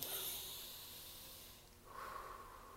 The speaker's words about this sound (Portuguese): Eu concentro, é, eu me concentro na minha respiração. Então, faço lá a técnica de respiração.